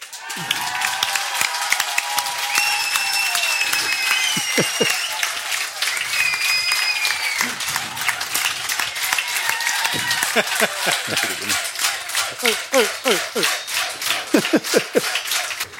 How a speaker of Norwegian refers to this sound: Så folkens, gi en stor applaus til kveldens første gjest,